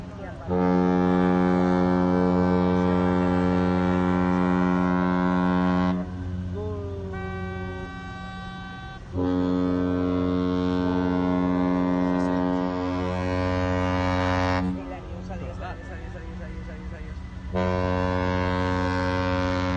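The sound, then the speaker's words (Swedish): The ship MSC Seaview blows its horn at its christening in Genoa in early June: long, deep, booming blasts, loud, with brief pauses between them where a fainter tone lingers and the air rumbles. “det tuta måste jag säga.”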